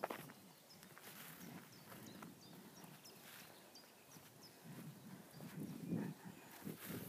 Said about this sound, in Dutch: We zijn ondertussen bijna 20 minuutjes aan het stappen.